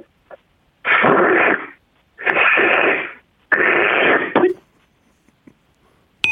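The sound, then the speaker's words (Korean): A person imitates the cry of a cocky leopard cat with 'middle-school syndrome', three loud, raspy hissing snarls, each lasting about a second, separated by short pauses, with no speech. “호랑이 그 저 네네네 호랑이과 사기 세미 호랑이 사, 사.”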